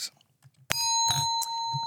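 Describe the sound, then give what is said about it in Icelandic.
A bright quiz bell apparatus in studio 12 is struck sharply and rings on with a sustained, shimmering metallic tone, signalling a correct answer, with faint voices murmuring underneath. “Þetta er þessi geggjaði bjöllubúnaður sem við höfum aðgangað hérna niður í stúdíu 12”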